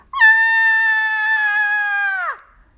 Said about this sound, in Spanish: Pero en un momento la señora vio algo y dio un grito terrible.